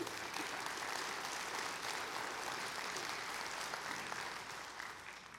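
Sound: audience applause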